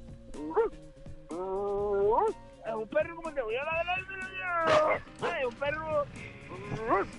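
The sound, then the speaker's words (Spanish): A person imitates the bark of a lazy dog lying down: a run of fairly loud, drawn-out low woofs and groans, several sliding upward in pitch, one after another. “El ladrido de perro echado de...”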